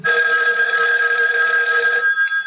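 A telephone bell rings continuously, loud, its bright metallic trill sustained for a couple of seconds with no voices over it.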